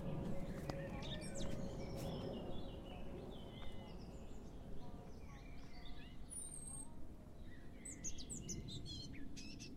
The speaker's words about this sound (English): So there's kind of like dappled sunlight. it's a very calm space. It's kind of just on a bend, which sets the tone for kind of a, a meandering experience that you can have whilst you're going through it. You can hear the bird song.